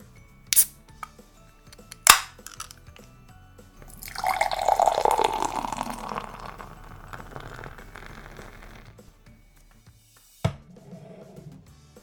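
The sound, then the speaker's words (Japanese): Two sharp clicks, then Crystal Weizen-taste beer poured into a glass: a steady gurgling, fizzy rush lasting several seconds that tapers off, followed by a single clink. No one speaks. “はい、ついでみました。”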